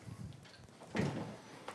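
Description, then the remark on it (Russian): A door swings shut with a soft, muffled thud about midway, then a faint latch-like click follows, set against quiet room noise with no talking. “Закрывать дверь.”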